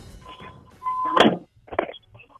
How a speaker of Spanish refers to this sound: la puerta del carro.